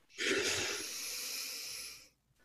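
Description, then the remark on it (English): A long, steady breath drawn in through the nose, fairly loud, with a soft airy hiss lasting about two seconds before fading out. No talking during it. A deep inhale taken during a guided breathing exercise. “if you want to just close your eyes and take a nice deep inhale,”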